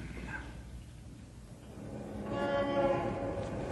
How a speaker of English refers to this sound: Shut that window. Here we are in a skyscraper, 40 stories above the street, and yet that traffic noise would drive you crazy. Shut the window, I say.